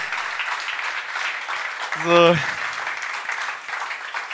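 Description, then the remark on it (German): A crowd claps steadily for the event's organizing team, a dense, even patter of many hands that holds throughout. A single short spoken word cuts in briefly midway. “Könnt ihr da bitte einmal kurz klatschen?”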